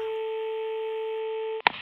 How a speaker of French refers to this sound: Maman Mouton décrocha le vieux téléphone de l'entrée et composa le numéro du Père Fouettard.